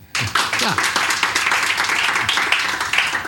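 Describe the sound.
A crowd breaks into steady, dense applause for a guest who is present, staying loud from start to finish, with a few brief voices calling out beneath the clapping.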